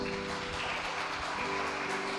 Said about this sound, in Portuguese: Aplaudimos ao nosso Deus.